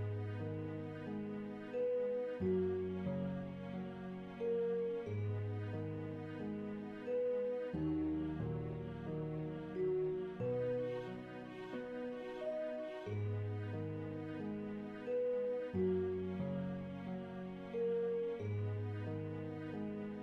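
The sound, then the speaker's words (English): A dry, unreverberated musical passage, the first part of a piece played with its reverb taken out: sustained low chords change every few seconds beneath a simple higher melody, with notes stopping cleanly and no echo or wash. Steady and moderately loud, with no voices. “So this is what it sounds like without any reverb at all.”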